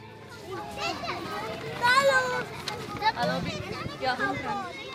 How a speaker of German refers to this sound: Und wir sind hier inmitten einer großen Schulklasse,